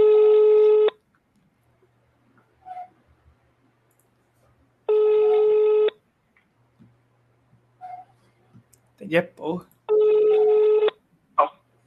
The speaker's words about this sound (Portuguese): Vou ligar de novo. Bora ver se ele atende.